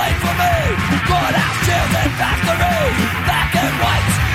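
A loud, raw hard rock punk song with a singer yelling over dense, driving guitars and drums, the shouted lines rising and falling throughout.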